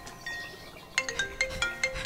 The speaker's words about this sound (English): Sir, you have a phone call.